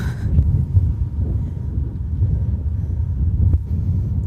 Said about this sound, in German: Ich weiß nicht, ob man es hört, aber heute haben wir zum ersten Mal ein Windthema.